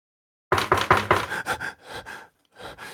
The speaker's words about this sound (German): An der Bank, an der, äh, hinter der du schläfst, klopft jemand.